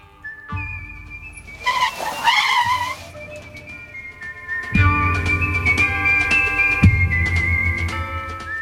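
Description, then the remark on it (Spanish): A red Lamborghini, the latest solar-powered model, rumbles with a brief squeal of tires, then the motor drones steadily and revs as it pulls in and parks in front of a saloon door beside a small horse trough, alongside a high whine. “A los pocos minutos, junto a un pequeño abrevadero de caballos, aparca delante de la puerta del salón un Lamborghini rojo, el último modelo que funciona con energía solar.”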